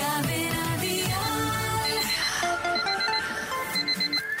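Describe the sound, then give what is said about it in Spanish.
A loud alarm clock rings, a continuous shrill metallic clatter with rapid high-pitched beeps repeating steadily throughout. No one speaks. “Sí, hay que comenzar el día, hay que levantarse, dale un manotazo para que se pare ya.”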